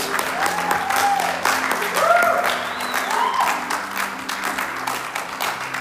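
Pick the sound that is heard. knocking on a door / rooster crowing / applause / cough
applause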